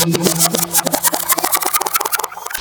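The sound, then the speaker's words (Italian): Steady road and traffic noise from inside a moving Tesla, a dense hum with quick rhythmic pulses running throughout, fairly loud, with no one talking. “Ciccine e ciccine, questa è una intro che sto registrando dalla Tesla, quindi sentirete traffico, burdella mentre siamo in viaggio.”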